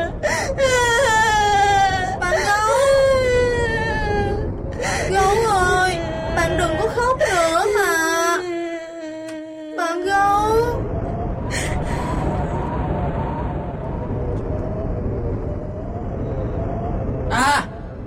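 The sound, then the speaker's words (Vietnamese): A bear character cries and sobs loudly, a voice wailing in long quavering breaths whose pitch rises and falls, with brief catches between sobs, continuing throughout and ending in a final sharp whimper. “Ủa Có chuyện gì mà Mà bạn gấu khóc vậy”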